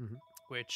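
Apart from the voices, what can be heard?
telephone ringing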